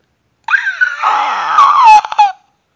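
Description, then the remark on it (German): A person imitates a baby dinosaur's hatching screech while making a matching gesture: a shrill, wavering, raspy squeal lasting about two seconds, rising and sputtering with clicky breaks near the end, loud. “eine legendär gute Dinosaurier-Baby schlüpft äh, Imitation aus Jurassic Park machen”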